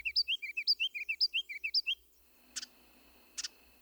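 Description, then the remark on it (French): A ruby-crowned kinglet, a tiny bird weighing barely 10 grams with small black wing bars and a red crown patch, bouncing from branch to branch, sings a rapid run of about a dozen high, bright chirps lasting two seconds, then gives two short, sharp double call notes, clear with no other sounds. “D'autres avant moi lui ont donné le nom de roitelet à couronne rubis.”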